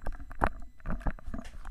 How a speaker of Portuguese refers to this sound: Desculpa o barulho aí, eu tô botando o fone.